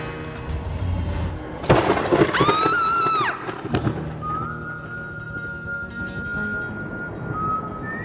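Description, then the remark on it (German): Thunder cracks sharply twice and rumbles low through a thunderstorm, with a rising, wavering whistle-like tone in the middle and a thin steady tone sustained later. No one speaks. “Es fehlt eigentlich nur noch Gewitter.”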